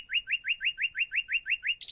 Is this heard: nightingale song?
yes